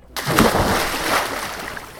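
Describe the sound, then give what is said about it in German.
A sudden, loud splash as someone takes a run-up and jumps into a pool of cool water on a hot summer day, followed by a couple of seconds of churning, sloshing water, with no talking. “Du stehst auf, läufst zum Poolbecken, springst mit etwas Anlauf in das angenehm kühle Wasser.”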